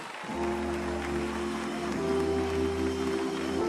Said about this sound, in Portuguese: Vamos dar mais um aplauso para a glória do Senhor Jesus.